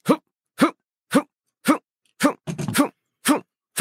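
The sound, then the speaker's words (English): A voice imitates a video game punch sound over and over, a short percussive vocal burst repeated at a steady, mechanical pace, with one slightly longer, messier hit partway through. Fairly loud. “when you go into a game, if if you're if there was one punch sound and it was just every time you pressed the A button”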